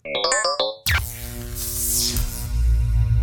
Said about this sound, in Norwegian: Så nå kommer avslutningsjingelen på podkast. Den går sånn her sånn Her kommer den.